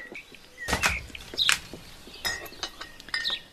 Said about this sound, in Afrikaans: Kom kom bys toe dan skink ek vir ons gemmerbier.